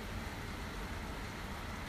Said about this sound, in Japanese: 久しぶりに雨が本気で降っているので本気で本格的に降っているのでなんかやっぱり雨雨音はいいなと思ってこうやって一緒に収録してます